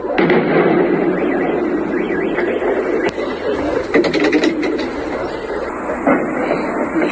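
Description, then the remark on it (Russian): Explosions from a drone attack on a military base area crack out in a quick cluster of sharp bangs midway through, with a lone blast just before, all over a steady roar of background noise. “Многие жители подумали, что это учение, но после того, как взрывы стали звучать чаще, а на улицах появились пожарные машины, стало понятно, ситуация тревожная.”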